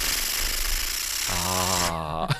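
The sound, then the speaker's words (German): A party blower is blown by Susan Link, starting with a breathy rush of air before breaking into a steady, buzzing kazoo-like tone that holds for about a second and stops abruptly. “Und Frau Link, ich weigere mich anzufangen, wenn du nicht jetzt sofort, war sie da schon, die Luftschlange machst.”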